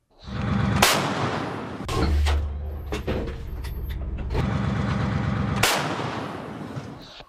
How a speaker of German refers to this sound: Den Schuss haben die Kollegen von Spiegel TV gehört